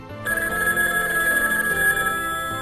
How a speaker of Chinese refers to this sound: 就在这时，蓬蓬狮的手机响了起来，电话里传来了喜鹊妈妈的声音：